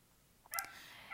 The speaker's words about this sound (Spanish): Gracias, perro de fondo, por el apoyo emocional, claro que sí.